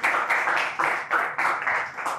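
A crowd applauds Wendell Bryant after his lecture presentation at IWP: a dense wash of clapping that swells and dips in waves every fraction of a second, fairly loud throughout with no voices over it.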